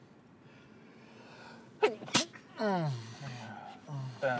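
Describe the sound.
A sharp, loud sneeze bursts out after a quiet stretch, preceded by a quick inhaled catch, then speech follows right after it.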